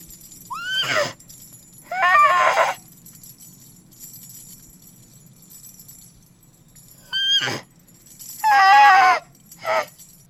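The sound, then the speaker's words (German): Two pairs of loud horse whinnies used as the sound of a unicorn, each a high quavering neigh followed by a shorter snort-like call, separated by a quiet pause with a low rumbling background. “Ich kann verstehen, was das Einhorn sagt.”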